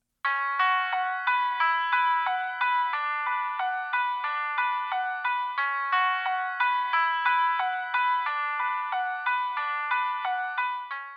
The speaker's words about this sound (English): The song's initial chord progression is replaced with an arpeggiated, heavily affected guitar or keyboard.